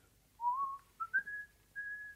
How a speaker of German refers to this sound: Hm, also, wenn Sie schon pfeifen müssen, dann pfeifen Sie wenigstens was anderes.